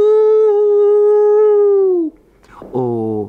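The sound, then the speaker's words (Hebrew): Children imitate a spooky ghostly 'yoo' howl while playing at a breach into a dark place, holding a long steady 'woo' that droops at the end, then after a short pause starting another loud howling note. “אז, כשהיינו באים עם הילדים לשחק כאן למעלה, לכל היותר נכנסתי דרך הפרצה שני צעדים פנימה, וכל הילדים היו משמיעים קולות יו!”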